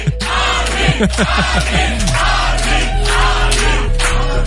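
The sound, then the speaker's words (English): A small crowd in a studio, at the official pre-party of A State of Trance 600, cheers and whoops loudly, voices overlapping in a steady, excited din with occasional shouts rising above it. “The vibe is quite buzzing here in the studio. We let a few people in already early.”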